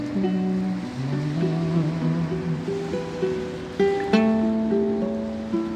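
Ocean waves form a steady, hissing wash throughout, beneath a loud melody of sustained, shifting musical notes from someone singing to their own instrumental accompaniment, with a brighter strum-like burst near the end.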